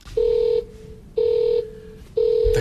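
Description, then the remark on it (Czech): An alarm in the dispatch control room of a central crude oil tank farm, sounding because a hatch on a valve shaft has opened: three loud, steady mid-pitched electronic beeps, each lasting about half a second and repeating roughly once a second, with a faint low hum underneath and no talking. “Když tady houká alarm, co to vlastně znamená?”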